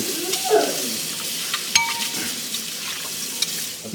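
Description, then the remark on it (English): A metal cereal spoon scrapes and grinds at crusty corrosion on a battery, a steady gritty rasping with a few sharp clinks mixed in, moderately loud throughout. “a uh, cereal spoon from this morning to clean off this.”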